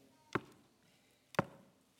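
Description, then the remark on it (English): Two sharp knocks, about a second apart, sound distinct against a quiet background, with no voices. “And I believe to a measure, he'll never stop knocking.”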